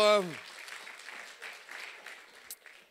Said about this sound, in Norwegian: Vi må gi dem en ekstra applaus der, da.